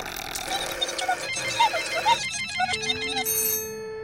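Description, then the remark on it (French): A phone rings with a bright, warbling electronic tone that keeps repeating without being picked up, then shifts to a steady beeping pattern before cutting off. “s'ils pouvaient appeler Abricu sur son 388. C'est comme ça qu'on appelle le téléphone des Mims”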